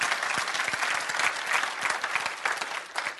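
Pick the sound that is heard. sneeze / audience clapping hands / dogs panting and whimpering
audience clapping hands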